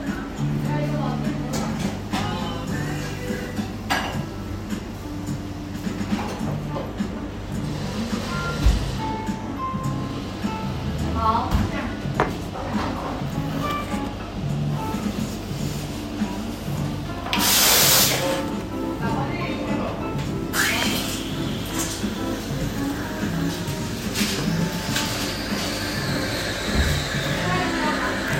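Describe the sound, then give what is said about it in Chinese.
Busy bakery café ambience, recorded on January 20 at a Baiqiu (百秋) bakery while waiting for coffee: a steady low hum and murmuring background chatter, broken by loud hissing bursts like a milk steamer, one around the middle and another shortly after. “现在你听到的这一段的背景音乐是我在一月二十号，在我们家门口的一家百秋的面包店里面等咖啡的时候录的。”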